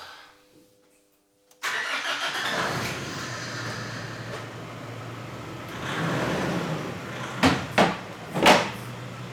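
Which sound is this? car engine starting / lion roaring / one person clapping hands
car engine starting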